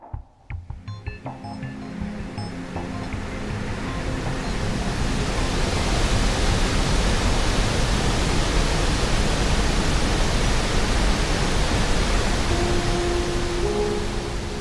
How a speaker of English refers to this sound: It was noisy in the rudder between the roaring of the waves and the metallic thrum of the propeller fan. Salt water lashed at the stowaway's skin, and as the Nave Andromeda pulled out of the port, the men lurched from side to side.